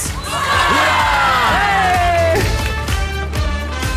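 A loud crowd cheers and shouts excitedly, high voices whooping with rising and falling cries over a continuous wash of clapping and noise that lasts the whole four seconds.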